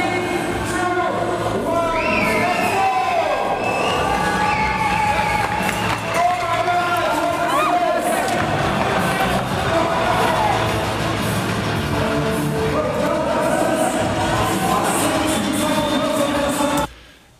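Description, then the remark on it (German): A crowd cheers at the start of a race at the Single Speed Cyclocross European Championship, a loud, steady roar of many voices with rising shouts layered on top, holding at full volume for the whole clip before cutting off abruptly. “hört sich genau. der Start an.”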